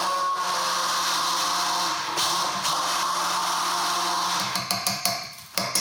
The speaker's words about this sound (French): Je mélange bien et je laisse refroidir pour après mixer la préparation et la mettre dans un, un bidon de 2 litres de lessive. Une fois la préparation refroidie, la passer au mixeur plongeant.